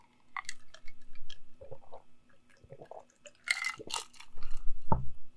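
Someone drinking a Dragon Boost energy drink from a can: a series of wet sips, slurps and swallowing gulps, with a louder burst of gulping near the end and no talking.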